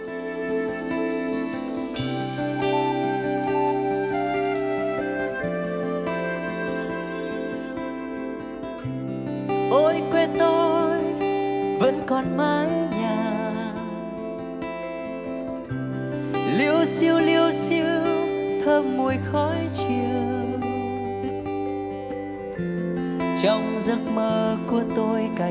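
An instrumental music passage with no vocals, featuring a steady bass line, sustained harmonic chords and melodic flourishes, played at a moderate, even loudness throughout.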